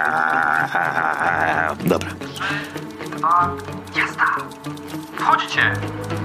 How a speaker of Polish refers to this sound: Słyszymy ślinianki. 5 sekund. Mlaszczemy.